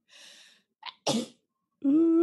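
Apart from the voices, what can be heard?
sneeze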